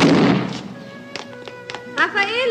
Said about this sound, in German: es hat geklopft!